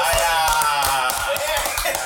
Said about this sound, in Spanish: Él mismo se está aplaudiendo.